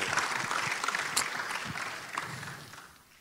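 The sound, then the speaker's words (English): A crowd applauds steadily after a speaker's testimony, a dense patter of many hands clapping at moderate loudness that holds for a few seconds and then begins to fade toward the end. “Give Ted a round of applause.”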